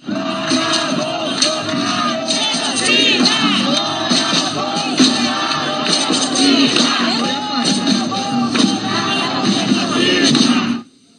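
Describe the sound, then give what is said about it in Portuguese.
A large crowd of protesters shouts loudly and continuously against President Bolsonaro in the capital of Minas Gerais, Brazil, demanding Covid-19 vaccines for all and protection of democracy, many voices overlapping in rising chant-like calls, sustained for about eleven seconds before cutting off abruptly. “Os manifestantes gritavam contra o presidente Bolsonaro.”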